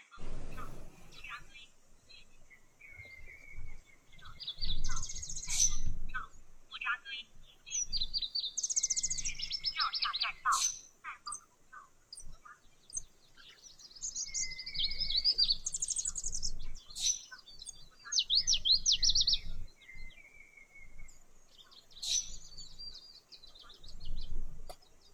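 Wild birds sing outdoors at Cherry Valley (Yingtaogou) in the National Botanical Garden, Beijing, several high-pitched chirps, trills and whistles overlapping in bursts, fairly clear above a low, rumbling background of rustling and faint murmurs.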